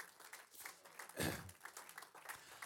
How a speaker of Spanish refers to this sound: La verdad. Dale un aplauso al Señor.